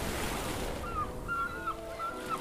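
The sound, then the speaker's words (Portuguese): A ship pushes through rough ocean water on its voyage home, with a steady roar of churning waves and wash, joined by a few faint, warbling horn-like tones partway through. “Desbravando o mar, o navio voltou fazendo muito barulho e agitando as ondas.”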